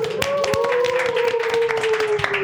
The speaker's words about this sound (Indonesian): Tepuk tangan dulu dong, tepuk